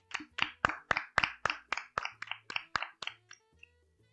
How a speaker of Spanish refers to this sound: Un aplauso para la Office. Un aplauso.